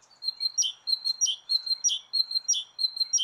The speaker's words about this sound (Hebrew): שמעתם את זה? אולי שמתם לב שהציוץ הזה הגיע רק מצד אחד, וידעתם לאן להסתכל.